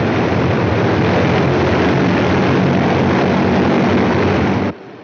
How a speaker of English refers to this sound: Aircraft commander to crew. Stand by for takeoff. Engineer, give me takeoff power. Jets, 100%. Power stabilized.